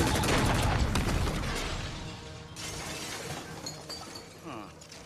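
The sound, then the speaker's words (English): The laser-proof glass wall of a jail cell shatters in a loud crash, followed by a long scatter of tinkling, falling shards that gradually settle and fade. “Oh, it'll take more than laser-proof glass to rob Thanos of his victory.”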